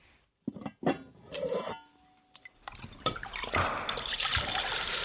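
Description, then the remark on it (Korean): A few clinks of a metal pot and some scattered drips, then bone broth pours steadily into the pot with a rushing splash that fills the last couple of seconds. “냄비에 사골 국물 넣고”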